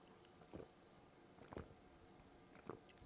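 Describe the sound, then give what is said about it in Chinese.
Sparkling water fizzing with a faint, steady bubbly hiss, broken by three soft liquid pops or drips about a second apart. No voices. “让我们轻易听气泡水的声音。”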